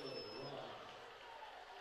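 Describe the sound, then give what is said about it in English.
A steady wash of crowd noise and clapping fills an indoor gym during a timeout at a basketball game, dense and continuous throughout, with a brief high squeak near the start and a murmur of voices underneath. “And a round of applause”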